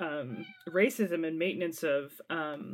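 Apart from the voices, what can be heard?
cat meowing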